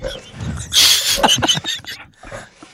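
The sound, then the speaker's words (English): A pit bull dog sneezes once, a sharp, hissing burst, followed by a few brief snuffling snorts and quieter rustling as things settle. “I think he just sneezed. That was a pit bull.”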